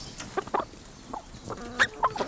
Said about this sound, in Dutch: De kippen, ook daar gaat heel veel van het, ja, het onkruid en zo bij. Leggen ze goed? ja.